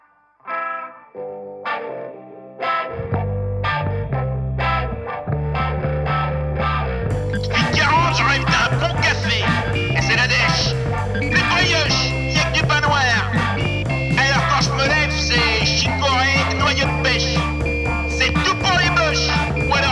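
A rock song opens with sparse, echoing guitar notes, a steady bass line joins, then a dense wall of distorted guitars kicks in and keeps driving loudly to the end.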